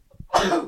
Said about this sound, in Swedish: Oj, prosit.